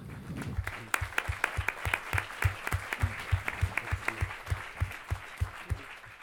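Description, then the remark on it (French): An audience applauds Louis Gallois and a fellow speaker after their talk, a dense patter of many hands clapping with a roughly regular rhythm throughout, moderately loud and without any talking over it. “Louis Gallois, Thierry louis on peut les applaudir.”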